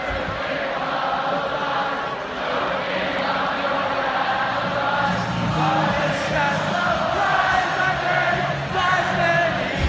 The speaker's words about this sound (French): D'ailleurs, j'ai un petit bout d'un euh, euh, Michigan State football où euh, toute la foule se met à chanter.